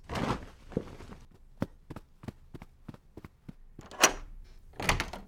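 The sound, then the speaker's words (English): A door being opened, with a rustling burst, a quick run of sharp clicks and knocks, then two louder whooshing bursts near the end. “And was this door locked?”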